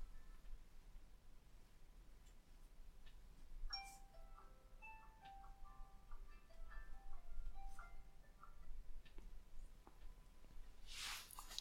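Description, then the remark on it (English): An alarm goes off, playing a soft, tinkling electronic melody of stepped mid-pitched notes for several seconds, then a brief burst of rustling noise at the end. “My fucking alarm's going off.”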